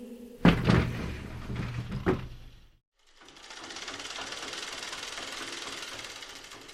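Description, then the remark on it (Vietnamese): A sliding door is pushed open by an old woman going out onto a veranda, rattling and rumbling with a couple of sharp knocks, fairly loud, then a short silence gives way to a steady, soft hiss of outdoor ambience. “Bà lừ đừ nhõm dậy, đẩy cánh cửa trượt và đi ra phía cuối hiên.”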